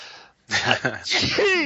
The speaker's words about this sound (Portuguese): Espera que eu vou espirrar.